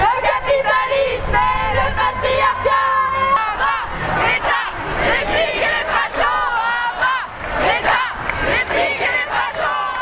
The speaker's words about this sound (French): On va démarrer notre marche. Ça, c'est une très très belle occasion pour qu'on crie très fort.